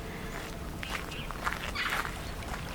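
Soft, irregular footsteps crunch over stony ground, a few gritty scrapes rising briefly above a steady low rumble of background ambience, with no one speaking.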